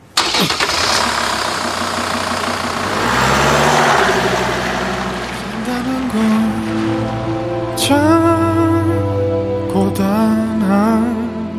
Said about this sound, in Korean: 유수는 트럭에 시동을 걸었다